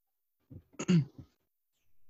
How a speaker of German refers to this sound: Ich habe dich räuspern hören, das heißt, du bist noch da.